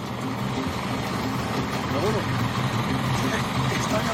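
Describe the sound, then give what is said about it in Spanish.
A bus engine drones steadily as the bus slowly pulls away, a low continuous rumble that holds at an even loudness throughout, with faint indistinct voices mixed in the background. “el autobús va a salir, pero el campo lo va a ver bonito.”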